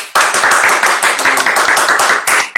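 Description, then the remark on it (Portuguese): A round of applause from a group, dense overlapping claps forming a steady loud roar of bright, crackling hand slaps that continues without pause for a few seconds. “Pra, na minha opinião, não tem forma melhor de terminar essa live e esse podcast como a gente começou, com uma salva de palmas.”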